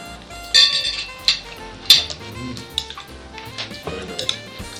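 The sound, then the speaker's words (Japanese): Chopsticks clink against a dish several times at an irregular pace while Chinese vegetables are eaten, with a few sharp, bright taps standing out over a soft background of quiet eating noises and no speech. “中国野菜をお箸で食べますこれもなんかなんか綺麗ね”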